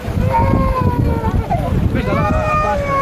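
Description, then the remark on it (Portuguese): A fishing boat's engine drones steadily amid rushing wind and water as it arrives through waves at the beach at Beira, ferrying evacuated people in torrential rain, with shifting tonal whines rising over the noise and muffled voices in the background. “É, é, é tipo ajuda, esse, é, esse é, barco pesca e algumas chatas estão a fazer essas travessias para ajudar a população que está a ser evacuada de lá para aqui.”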